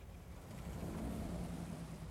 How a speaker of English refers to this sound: Somewhere outside, a lone car passed by.